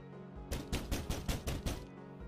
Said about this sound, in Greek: Αυτή τη φορά το χτύπημα ήταν αρκετά δυνατό για να ταρακουνηθεί η πόρτα.